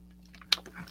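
A quick sip of Diet Coke, with a sharp wet slurp and a few soft mouth clicks and swallowing noises against a quiet background hum. No one speaks.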